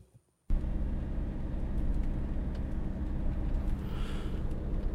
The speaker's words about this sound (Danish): motoren i bilen er nu begyndt at give sådan en voldsom raslyd, lige så snart jeg kobler ud. Øh, der er ikke nogen rødvikling. Der har ikke på noget tidspunkt været nogen advarselslamper, der har givet tegn. Lige prøv at høre her.